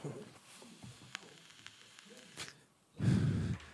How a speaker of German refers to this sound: Dafür habe ich mir aber mit diesem komischen Dampfer da angefangen und rauche die ganze Zeit dieses Dampfzeugs da.